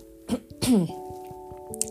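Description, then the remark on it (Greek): Two short, close coughs, the second harsher and longer, over a steady low background hum; no one speaks. “Θα την ξαναπώ αυτή τη φράση γιατί έβηξα και θα ξαναβήξω.”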